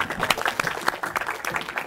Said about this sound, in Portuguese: Isso aí. Salve de palmas.